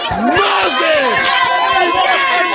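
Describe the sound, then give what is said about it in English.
A large crowd cheers and shouts continuously, with many voices overlapping and rising in loud whoops, dense throughout with no pauses. “You will notice the noise you are hearing the noise you are hearing is not my noise. It is the noise of the people.”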